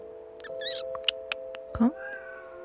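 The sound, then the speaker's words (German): A cat gives a short meow near the end, after a few faint squeaky chirps and scattered soft clicks, all over a steady low electrical hum. “Ach, du bist das Tigerchen. Guten Abend, na komm mal zu mir.”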